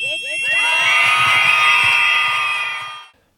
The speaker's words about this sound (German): Dafür schreien wir. Jetzt!